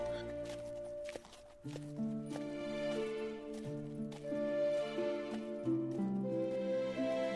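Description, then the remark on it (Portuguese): Percussive knocks imitate horse hooves clip-clopping, sounding in an uneven, unhurried pattern over sustained, melodic improvised violin music that continues throughout. “improvisou no violino, usando de percussão o barulho dos, dos cascos dos cavalos ali, deu uma revigorada em vocês.”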